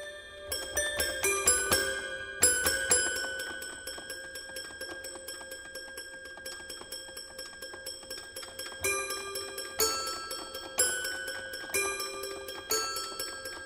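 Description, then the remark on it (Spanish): Bright, bell-like toy piano notes from John Cage's Suite for Toy Piano ring out in short, sparse phrases, each tinkling strike sustaining with a metallic shimmer before the next cluster of high, chiming tones. “Así suena la suite para piano de juguete de John Cage.”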